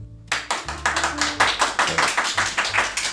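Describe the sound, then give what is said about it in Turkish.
A small audience of five spectators in Tarabya claps for about three seconds, sharp hand claps falling in a quick, fairly steady rhythm at even loudness, with no one speaking over them. “bir alkış isteyelim evet.”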